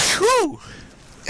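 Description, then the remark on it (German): A single loud sneeze: a sharp breathy burst that swoops into a voiced 'choo', then a moment of quiet before another noisy breath cuts in at the end. “Ja, Gesundheit, danke. Gesundheit.”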